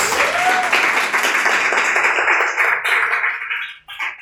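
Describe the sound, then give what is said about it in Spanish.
A crowd bursts into sustained applause, dense rapid clapping holding steady for about four seconds before tapering off at the end, with no talking over it, for three audience members present in the studio. “y vinieron, bienvenidos, un aplauso para ellos.”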